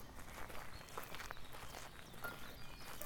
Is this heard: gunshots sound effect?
no